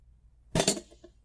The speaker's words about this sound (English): I just put, placed, positioned, moved this chair here. In other words, I set it here apart from there.